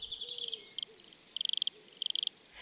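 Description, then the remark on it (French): A wood cricket stridulates by rubbing its first pairs of wings, in soft, rapid bursts of pulsed chirps repeated several times with varying lengths, clear against a quiet background with faint bird calls. “Il s'agit d'une stridulation douce et harmonieuse, répétée plusieurs fois sur des durées différentes, et est produite en frottant ses premières paires d'ailes”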